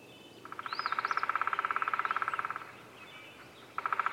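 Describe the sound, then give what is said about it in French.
A black woodpecker at work hammers out a fast, even drum roll of rapid knocks lasting about two seconds, then a second burst begins. Quiet forest, with a brief faint bird call. “Ce que vous entendez ici, c'est un pic noir en plein travail.”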